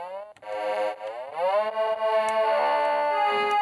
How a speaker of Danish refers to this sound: Nu kan man godt høre, at den, den skulle forestille en, en, en legetøjsviolin. Og måske en øh, klokke.